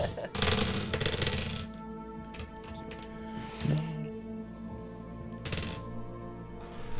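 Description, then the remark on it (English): Dice clatter and tumble across a hard surface in a few short bursts, over a steady low background hum with faint voice-like murmuring. “You're rolling my dice.”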